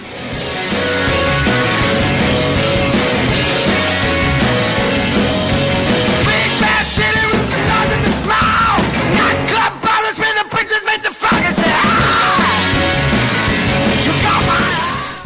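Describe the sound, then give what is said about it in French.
Loud, raucous garage rock'n'roll from the first album of a London rock'n'roll and garage band formed in 2007 blares continuously, with dense distorted guitars, pounding drums and a shouted, yelling vocal, briefly stuttering with sharp stop-start hits near the middle before charging on. “c'est un groupe londonien aux tendances rock'n'roll et garage formé en 2007.”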